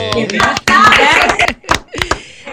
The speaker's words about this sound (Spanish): Un aplauso.